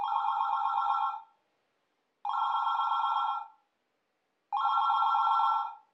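A telephone bell rings three times in a steady pattern, each ring about a second long with a buzzing, trilling tone, separated by short silent pauses. No voices are present.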